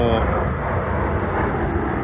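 airplane passing overhead

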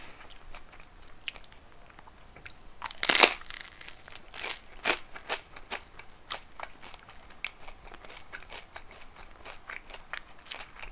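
chewing food

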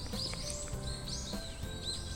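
morning birdsong

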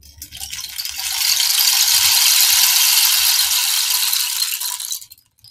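rain stick being tilted

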